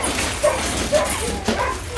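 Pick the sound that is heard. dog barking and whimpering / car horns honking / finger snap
dog barking and whimpering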